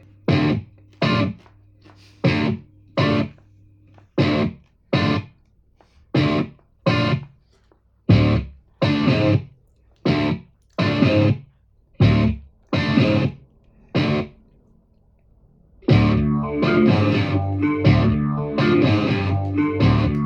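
Part of a rock cover song: loud, distorted electric guitar chords hit in short, evenly spaced stabs with silences between, then the full band comes in and plays continuously.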